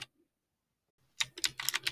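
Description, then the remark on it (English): Rapid clacking of the mechanical keys of a FreeWrite writing device being typed on, a quick irregular burst of bright clicks starting after a second of near silence. “Simply look at the screen or the mechanical keys and type away.”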